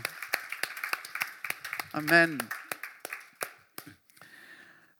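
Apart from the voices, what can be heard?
audience applause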